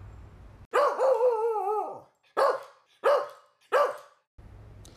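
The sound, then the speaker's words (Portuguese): The dog Marley barks loudly, starting with one long, drawn-out yowling bark followed by three short, sharp barks in a steady rhythm, with no voices. “Ele latia, latia e latia.”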